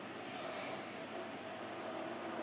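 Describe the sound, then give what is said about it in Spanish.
An electric fan runs steadily, a constant airy whoosh with a faint low hum, unchanging in loudness throughout and with no voices over it. “Por cierto, perdón por la calidad, bueno, calidad de sonido y el, ruido que hace, porque tengo el ventilador, ya que estamos en una gran ola de calor.”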